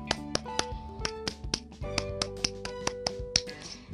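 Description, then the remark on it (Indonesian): A crisp Indonesian Pramuka scout clap (tepuk pramuka), performed once: about a dozen sharp claps in a quick, uneven rhythmic pattern, with faint steady tones humming underneath and no talking. “akan mengajak kalian untuk melakukan tepuk pramuka selama eh sebanyak satu kali.”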